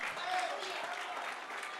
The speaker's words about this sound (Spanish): Vamos, los obstinados aplaudan.